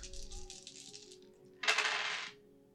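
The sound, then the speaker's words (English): Four dice rattle and clatter on a hard surface during a board game, first in a lighter tumbling stretch, then a louder, sharper burst of clacking as they land and settle. No one speaks. “So, four dice.”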